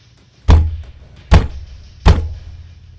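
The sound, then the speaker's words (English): Three heavy, booming thuds of fists pounding on a wooden bedroom door, spaced roughly a second apart, loud with a deep low-end resonance and no voices. “The loud sound of fists pounding on the bedroom door rang out.”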